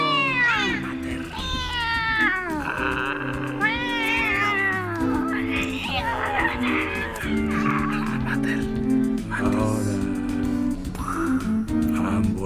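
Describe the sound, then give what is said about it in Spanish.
A cat yowls and caterwauls loudly, a series of long, wavering wails rising and falling in pitch, over a steady droning musical background. “Con mi propio gato saltándome al cuello.”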